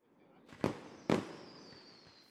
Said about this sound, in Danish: Men det er jo bare fyrværkeri, siger Geo. Det er ikke spor farligt, når man er indenfor.